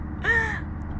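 A single short, nasal squawk from a chicken, rising briefly and then trailing off, heard fairly clearly over a steady low background rumble.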